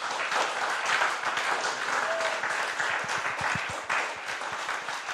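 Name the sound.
audience applause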